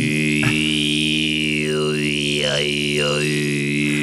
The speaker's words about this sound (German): Das ist Kehlkopfgesang übrigens. Ja, ich weiß. Das ist cool.